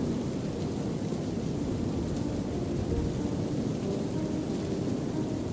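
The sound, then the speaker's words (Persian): Steady rain pours down with a deep, continuous rumble of thunder rolling underneath, a dense and unbroken storm wash with no voices. “توی درخت یه بارون خیزش نمیکرد”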